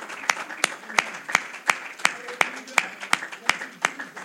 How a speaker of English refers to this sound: And someone shout, Amen. amen. Give the Lord a hand clap of praise. Hallelujah.